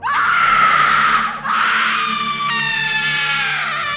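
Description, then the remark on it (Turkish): A woman, a coworker, lets out a piercing, high-pitched scream in fear, loud, breaking briefly for breath before continuing in a second sustained shriek that wavers in pitch, as she steps backward waving her arms in front of her face. “hepimizin yüreğini korku salacak derecede neredeyse bir insanın çıkarması imkansız tiz bir çığlık atmaya başladı.”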